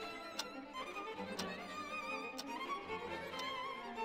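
A clock ticks steadily, four crisp ticks spaced about a second apart, over a soft, sustained musical backdrop.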